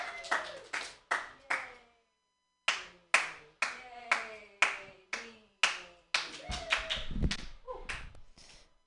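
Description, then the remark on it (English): An audience at a comedy show claps for a comedian starting his set, a sharp, steady rhythm of separate claps, pausing briefly, then resuming and swelling into a denser, looser burst with faint voices mixed in near the end. “So clap for me.”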